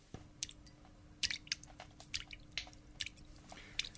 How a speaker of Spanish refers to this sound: Era el sonido de unas gotas que caían sobre un líquido.